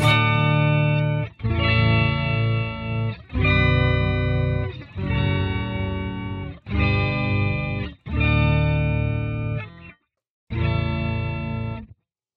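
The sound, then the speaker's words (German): An electric guitar run through an Octava octave effect with the original signal removed, leaving only the generated sub-octave and octave signal as a thick, synthetic tone. Several sustained chords ring loudly in separate bursts, with short gaps between them and no talking. “kann man ganz spaßig machen, weil man praktisch das komplette Originalsignal rausnimmt und hat dann mit dem nur das generierte Suboktaven und Oktavensignal dazu.”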